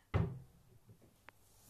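A door bangs shut with a single heavy thud that quickly fades. About a second later comes a faint small click, then quiet room tone.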